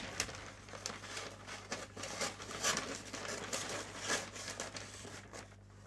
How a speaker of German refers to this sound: Also Papier wird auf jeden Fall geknickt und zerschnitten. Ja, das ist, das ist richtig. Das hast du, du gut. Hast es, ist halt auf jeden Fall dünnes Papier.